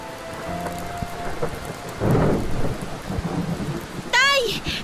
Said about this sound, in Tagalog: Pero dahil sadyang mas malakas po ang maraming ulan na dala ng bagyo ay mabilis na tumaas ang tubig sa lugar namin dahilan para umabot na yon sa mga kabahayan.